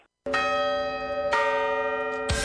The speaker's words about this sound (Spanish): Acabamos el año con las 12 campanadas Hyundai.